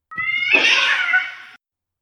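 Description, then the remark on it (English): A single long, loud cat meow, drawn-out and strained, rising into a harsh wail before cutting off abruptly. It's heard alone and close up, with no talking. “Or till feral cat do us part.”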